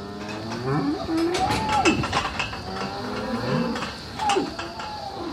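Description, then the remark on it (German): Several hornless dairy cows moo and low inside a loose-housing barn, overlapping calls, with clanking metal and shuffling in the background and no one speaking. “Im Stall gehen wir auf Renate zu.”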